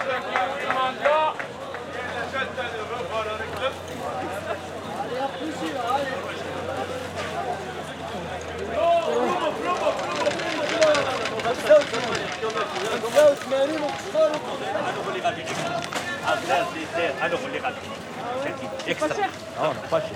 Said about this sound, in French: C'est pour ça que j'aime bien venir ici euh, au marché.